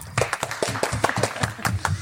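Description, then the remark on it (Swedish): A brief burst of applause from a small group: quick, uneven hand claps, sharp and fairly loud, lasting about two seconds, with a faint murmur of voices underneath. “Där får du en applåd.”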